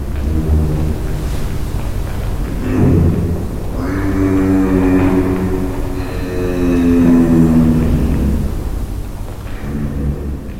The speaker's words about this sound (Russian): Вы слышите, как жирафы гудят по ночам.